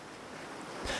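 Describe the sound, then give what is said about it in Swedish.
A steady wash of ocean surf fills the short clip, a constant broad hiss with a brief louder surge of breaking water near the end. No one speaks. “Havet. En mytomspunnen värld som ruvar på en dold hemlighet långt ner under ytan.”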